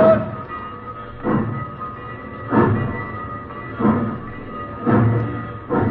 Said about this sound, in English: The train rolled across the fields and plains and sang out at night on its way to Mexico.